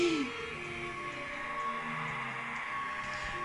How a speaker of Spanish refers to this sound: Usted no lo sabe, pero acabo de poner a Godzilla rugiendo. Todos los rugidos de Godzilla desde 54. Vámonos al más actual.